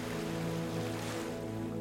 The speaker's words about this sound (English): Let the sound of lapping waves relax you deeply and completely. Allow your thoughts to drift until they settle into a slow, gentle sound of waves. You are resting comfortably in the bow of a sturdy boat on a lake.